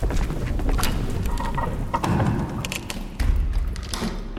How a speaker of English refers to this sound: The men walked ahead and opened the giant doors, which moaned from disuse.